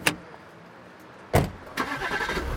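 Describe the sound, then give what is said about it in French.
A sharp click, then a brief cranking burst as a refrigerated truck's engine starts and settles into a steady rumbling idle; the truck is packed with fruit, vegetables, meat, moulds and utensils, bound for Lyon for the International Catherine Cup, a world catering championship. No voices. “Ils vérifient une dernière fois le camion réfrigéré, plein à craquer de fruits et légumes, de viande, de moules et ustensiles dont eux seuls connaissent les noms.”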